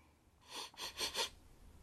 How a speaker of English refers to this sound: Absolute sniff.